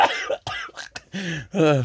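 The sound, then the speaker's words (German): A series of harsh coughs in quick succession, sharp bursts followed by drawn-out raspy, voiced hacks, as someone imitates the heavy, phlegmy cough of a grandfather who was a smoker. “mein Opa war Raucher, der hat immer so gehustet.”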